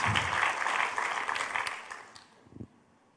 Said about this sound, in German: Ich glaube, wir dürfen dem Übersetzungsteam mal einen dicken Applaus geben.